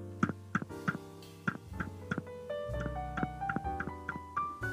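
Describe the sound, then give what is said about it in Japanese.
Fingers tap directly on a shock-mounted microphone in a quick, uneven series of about a dozen sharp knocks, heard over soft background music. “これは聞こえるかな今、マイク自体をトントン叩いてるんですけど。”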